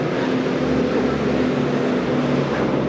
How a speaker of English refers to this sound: … kept getting interrupted by trucks hauling shipping containers